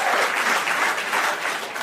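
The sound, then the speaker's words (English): Steady audience applause from people who have seen the film Taken 2, a dense wash of many hands clapping at an even, fairly loud level throughout, with no voices standing out. “How many people here have seen Taken 2? Applause.”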